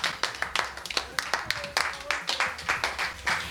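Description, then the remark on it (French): A small group applauds the participants, with dense, uneven hand claps crackling steadily throughout, sharp and bright, rising into a brisker burst near the end. “Alors au jeu des 1000 euros, comme au jeu des mille curieux, Et eh bien, on s'applaudit, on applaudit euh, les participants.”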